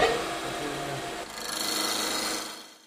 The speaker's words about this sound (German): So, jetzt schalte ich den Drechselautomat ein. Vorsicht, weil da dreht es jetzt.